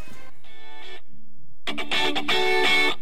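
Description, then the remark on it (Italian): A pop song, today's number-one chart position, opens with bright, distorted electric guitar phrases, briefly drops to a quiet low tone, then bursts back louder and fuller with dense strummed chords. “Stiamo per- parlando, signor regista, eh, della prima canzone di oggi che fa più o meno così.”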